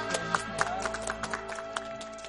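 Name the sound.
studio audience applause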